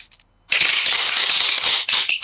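After a brief quiet moment, a crowd bursts into loud, steady applause, a dense crackle of many hands clapping that holds strong for nearly two seconds with a small dip near the end.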